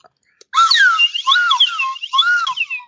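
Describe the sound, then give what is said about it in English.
A voice imitates a whooshing suction, the sound of a TV sucking someone in after a static shock, with a loud, continuous warbling tone of about two and a half seconds, its pitch swooping and wobbling up and down, with no talk over it. “And he gets real close to the TV and then there's like a static shock and then it like, whoosh, like sucks him in.”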